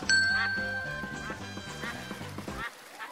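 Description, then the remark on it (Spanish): Ducks quack in quick, rhythmic bursts, several calls overlapping, with a steady high tone running beneath before the sound cuts off abruptly near the end. “Pero no olvides, los patos no son míos.”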